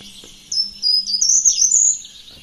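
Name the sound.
short-toed treecreeper song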